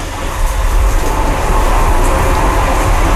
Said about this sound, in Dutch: Ik neem de trein weer terug uit Hongarije naar Nederland.